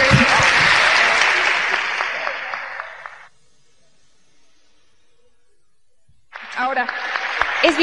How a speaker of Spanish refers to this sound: Ok, gracias. Gracias, vamos a darles un aplauso a los que subieron.